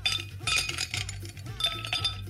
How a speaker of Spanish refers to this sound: Si nada más se ve cómo le mueves a la cuba, se escucha nada más ahí los hielos, como hacen sonido al rebotar con el vaso, ¿eh?